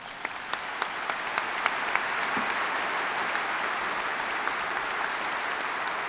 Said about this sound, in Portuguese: Vamos saudar o padroeiro do Brasil com uma salva de palmas, bem forte.